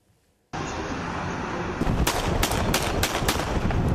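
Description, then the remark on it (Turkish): A burst of three sharp gunshots rings out, loud cracks in quick, uneven succession over a steady wash of background noise, with no voices. A motorcyclist is firing at a service vehicle in Esenyurt, Istanbul. “İstanbul'da yol tartışması nedeniyle bir motosikletli şehir eşkıyası servis aracına 3 el ateş etti”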